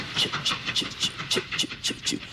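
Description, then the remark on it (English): A train's rhythmic clickety-clack as it pulls away from a train station, roughly ten evenly spaced metallic clacks with low thumps beneath, steady and moderately loud, with no one talking. “So now listen to the train. The train's going off.”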